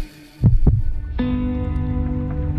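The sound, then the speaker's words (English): A single heartbeat sound effect opens the Salvation Army radio program Heartbeat: two deep thumps in quick lub-dub succession, followed by a steady, sustained humming tone that swells in and holds to the end. “From the Salvation Army, welcome to Heartbeat.”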